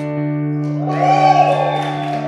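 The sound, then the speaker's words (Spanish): An audience of married people breaks into shouts and cheers of joy partway through, swelling briefly and then easing, over a steady sustained musical tone that continues underneath. “y para las parejas, den un fuerte grito de júbilo los casados.”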